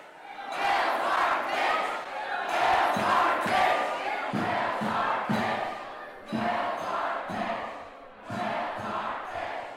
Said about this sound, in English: when I walked into Ida Noyes, it was like walking into a wall of noise. I couldn't really even tell what everyone was saying. There were hundreds of people all crammed into the lobby.